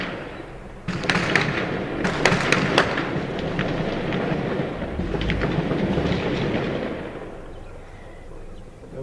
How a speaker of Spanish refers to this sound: dos elementos de fiscalía fallecidos, una persona civil también eh, fue alcanzada por estas balas y pues desde las azoteas estuvieron eh, disparando a los elementos de la fiscalía tenemos un audio que me gustaría eh, compartir para que lo escuchen.